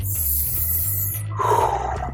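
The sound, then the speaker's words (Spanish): A deep, drawn-out inhale with a rough, growling rumble underneath, fairly loud, lasting about two seconds and rising into a raspy, roar-like tone near the end. “Respiro, inhalo”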